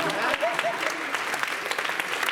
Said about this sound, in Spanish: Deben un aplauso, hermano.